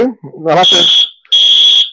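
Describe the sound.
An electronic referee whistle, which has three volume settings, gives two loud, steady high-pitched blasts, each lasting about half a second, with a brief gap between them, with no audience present; a voice is heard just before the first blast.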